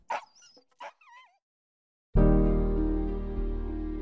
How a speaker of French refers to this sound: Tony propose des initiations aux chiens de traîneau dans le nord du Québec avec la lignée des chiens de Nicolas.